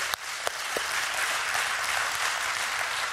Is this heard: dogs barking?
no